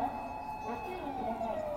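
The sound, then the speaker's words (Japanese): A nearby ambulance siren sounds steadily, its high wailing tones shifting slightly in pitch over a layer of street noise. “うわでもめっちゃ近いわちょっとみんな聞いてくださいじゃあ救急車の音。”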